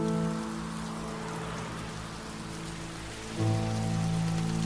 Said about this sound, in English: It's still raining on the on the lamp